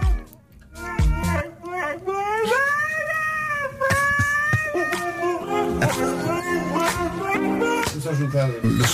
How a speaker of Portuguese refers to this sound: Põe lá só o som original do Husky só as pessoas se lembrarem como é que isto tudo começa.